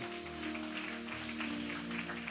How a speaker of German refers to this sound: Lasst uns einen dicken Applaus geben für Menschen, die sagen, hey, das ist mein Moment heute. Lasst uns mal einen kräftigen Applaus geben. Sehr, sehr schön.